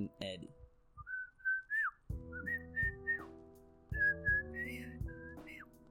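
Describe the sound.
Someone whistles a short, bouncy melody of sustained and sliding notes, clear, with a fuller backing sound underneath from about two seconds on.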